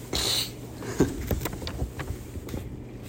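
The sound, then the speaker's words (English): Wind gusts steadily past a window in a rumbling rush, with brief buffeting bursts and a hiss at the start, continuing without a break and with no voices. “Any louder than the wind.”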